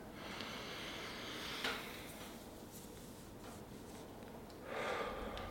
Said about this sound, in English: now breathe from your nose and feel the point at which your breath kind of goes down but then stops. So Imagine I'm breathing now, and this is indicating where I can feel my breath.